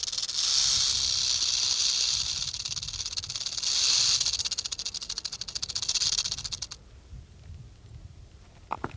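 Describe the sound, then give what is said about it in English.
A rattlesnake rattles in a steady, rapid, high-pitched buzz that swells louder and softer for about six seconds, then cuts off abruptly, leaving near quiet. “We found a small lake, some badlands, and a rattlesnake.”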